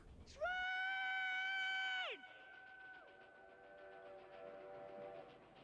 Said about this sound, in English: the four intrepid adolescents found themselves past the point of no return on a very long, very tall bridge with a massive steam train bearing down on them.